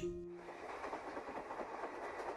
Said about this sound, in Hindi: train की खिड़कियों पर अंधेरा चिपका हुआ था धड़धड़ाते डिब्बों में सन्नाटा पसरा था